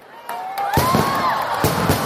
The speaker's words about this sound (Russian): Ох уж эти мне фейерверки